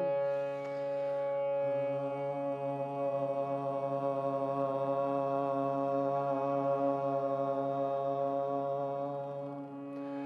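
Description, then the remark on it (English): A single voice sings one long, steady "ah" vowel as part of a meditation chant, held evenly for about ten seconds with a rich, resonant tone and no words, fading out at the end. “Now the ah sound, breath in.”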